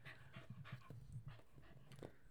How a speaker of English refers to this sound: I'm sorry, I can hear your dog breathing into your microphone. I'm so sorry.